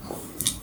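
Short, close gnawing and scraping sounds, a dog chewing on a hard antler chew, with a couple of sharper crunchy clicks mid-way; no talking.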